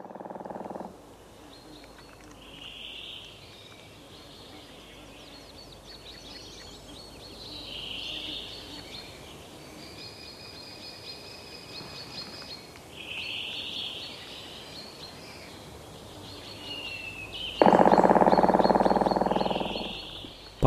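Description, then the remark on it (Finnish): A woodpecker drums in a Finnish forest, with rapid rattling bursts that end in one loud, sustained roll, while higher bird calls chirp intermittently over a steady background hiss. “kärki naputtaa suomalaisessa metsässä, suorastaan rummuttaa”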